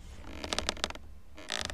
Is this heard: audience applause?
no